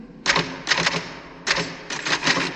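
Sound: typewriter typing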